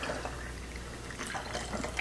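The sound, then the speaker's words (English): Filtered water pours steadily from a Brita pitcher into a bottle, a continuous splashing trickle with a slight rising gurgle as it fills, no voices present. “So all you have to do is filtered water from the the Brita here, the Brita pitcher. So I'm filling it up”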